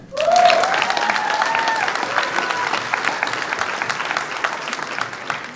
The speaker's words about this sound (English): first off, I'd like to thank all you beautiful people for taking it, taking the time out of your day to come here and listen to this discussion. So give yourself a hand.